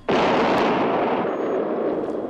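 A sudden, loud explosion bursts in and rolls on as a dense, roaring rumble that barely fades over a couple of seconds. It sounds heavy, with no voices.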